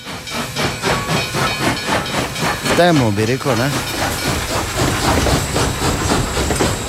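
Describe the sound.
A steam locomotive hisses loudly and steadily, with a rhythmic chuffing pulse as it pulls away; a person speaks briefly over the noise.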